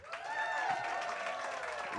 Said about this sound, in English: And also, for fuck's sake, give her parents a round of applause all the way here from Sao Paulo, Brazil.